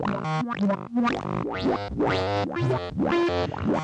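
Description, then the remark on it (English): Gritty, overdriven lo-fi delay tones from a delay unit, overdriven as its attenuator is turned up, repeat in fast rising swoops, each smeared, distorted burst climbing in pitch and overlapping the last, loud and continuous with no voices. “And now watch, I'm going to bring that attenuator up to show you the overdrive that this thing can produce.”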